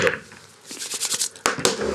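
Two dice clatter and rattle across a hard surface in a quick burst of clicks, ending with a couple of sharp knocks as they settle, with no talking; the roll, made for constitution, lands a one on each die.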